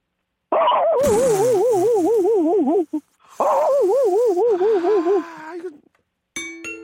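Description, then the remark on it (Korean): A person's voice imitates a country dog barking in two long, loud, wavering drawn-out calls, with a short pause between them and a brief tonal sound at the end. “시골개는 좀 어, 네. 뭐좀 뚫다 뚫려 있고 피해를 주는 네, 게 없으니까 그렇죠. 한번 들어보겠습니다.”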